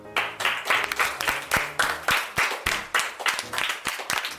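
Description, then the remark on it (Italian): An audience breaks into lively applause for Walt Disney, many hands clapping together in a dense, steady patter that swells in quick rhythmic waves, fairly loud, with no one speaking over it. “Il grande Walt Disney a cui, a cui farei un applauso spontaneo.”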